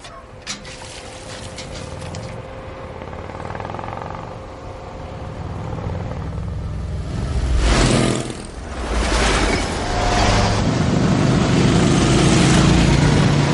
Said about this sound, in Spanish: La hilera de vehículos entra el pueblo, se detienen en la plaza. Los soldados bajan de los camiones.